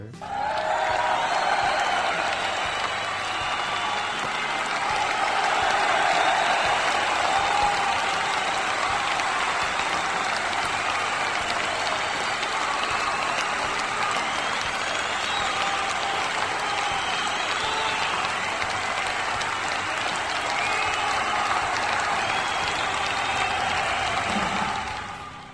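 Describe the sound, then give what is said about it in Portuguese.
Sustained applause from a crowd, a dense steady wash of clapping that holds at an even, fairly loud level for about twenty-five seconds before tapering at the end. “Palmas para o trend, é.”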